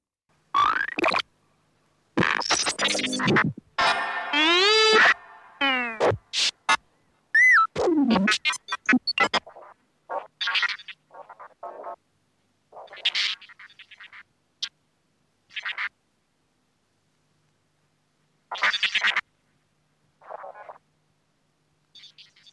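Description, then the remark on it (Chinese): Early electronic music from 1958, made for multichannel performance: short, chattering bursts of synthetic tones, gliding pitches, clicks and noise, separated by silences, imitating speech as monologue, dialogue and argument, with no real voices. “所以呀，让我们来听听这个。这首电子音乐。”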